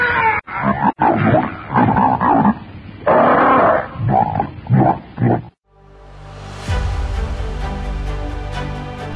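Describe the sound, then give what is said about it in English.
In a Tarzan radio drama, a voice imitates a monstrous, red-haired ape jabbering and grunting gutturally through slavering lips as it grabs someone by the neck. The loud, uneven bursts last several seconds before breaking off into a sustained swell of music. “Jabbering gutturally through thick, slavering lips, the monstrous ape reaches out a hairy arm and paw and grasps Wolf by the back of the neck.”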